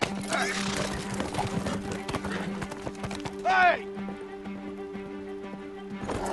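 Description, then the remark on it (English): A horse's hooves clop in a steady, uneven rhythm as a woman rides it across a river. About halfway through, a short, rising whinny breaks in, and a low constant hum runs underneath throughout. “So she basically walks across the river on her horse and you just see uh,”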